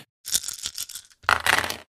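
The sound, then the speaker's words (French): Dice rattle and clatter across a table in two bursts for a dexterity-plus-driving roll with seven dice: a scattered run of sharp little clicks, a short pause, then a denser, louder tumble of many dice before settling. No one speaks. “Alors ça fait deux succès, tu peux utiliser un point de volonté pour relancer les dés.”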